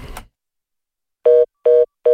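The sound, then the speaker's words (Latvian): A brief rustle of noise, then a telephone line tone sounding in three short, evenly spaced beeps, loud, with no one speaking, as a call is placed during a Latvian radio program. “Zvanām, mums kā vienmēr brīvais mikrofons.”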